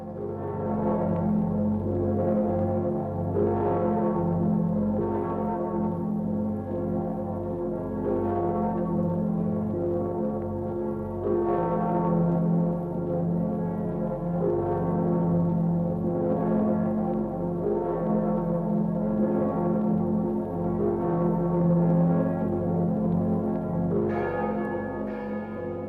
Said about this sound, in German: tiefen Glocken von Breslau mahnen an die Vergänglichkeit alles Irdischen und daran, dass wir Menschen eine bleibende Heimat nur im Ewigen haben.